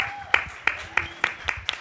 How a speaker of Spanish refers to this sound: Muchas gracias a las tres personas que están aplaudiendo.